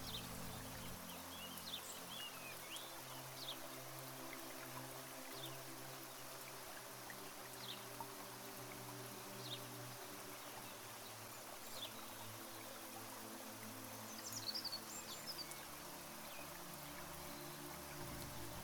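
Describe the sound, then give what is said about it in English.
Soft, steady rain hisses evenly outside, with scattered chirps of sparrows, swifts and doves from a courtyard rising briefly over it now and then. No one speaks. “The sound of whispering rain falling outside blends with the birdsong from the courtyard.”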